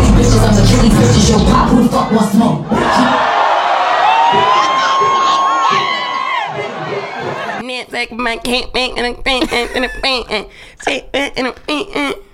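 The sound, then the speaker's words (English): A large crowd screams and cheers loudly for several seconds on hearing a female voice in a remix being played, with high whoops and shrieks rising out of the roar, before it gives way to one person talking. “The crowd goes wild. The crowd goes fucking wild. The crowd, including me, screams.”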